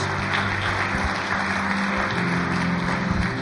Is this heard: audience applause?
yes